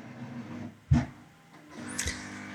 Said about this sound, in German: Es ist nicht Alexa. Es ist die Kaffeemaschine, die jetzt gerade sich spült. Es spült sich die Kaffeemaschine ganz alleine. Der Gerät spült.